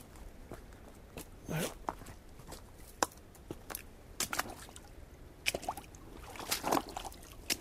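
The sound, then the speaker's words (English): A creek at the Sturt Creek site, slowed to a virtual trickle after a month or so without rain, trickles and dribbles in a thin, irregular flow, with scattered soft splashes and clicks and a few louder bursts of water against stones. “The creek itself has slowed to a virtual trickle.”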